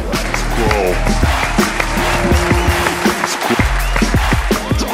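A loud, steady burst of audience applause, dense clapping from a large crowd mixed with cheers and whoops, filling the whole moment without pause.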